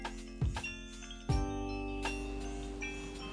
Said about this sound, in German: Irgendwie fühlt es sich schon an, als wäre es total spät am Tag, aber da läuten gerade die Glocken für den Frühgottesdienst, würde ich sagen.